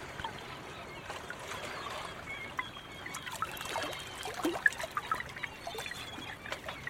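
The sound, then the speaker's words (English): Gentle tide water laps and trickles against gray mangrove roots at night under a full moon, in waters bordering Gadigal and Kaimagal country, a soft continuous washing with small splashes and drips, steady with no voices. “You can hear mud crabs scuttling home as the tide begins to wash against the mangrove.”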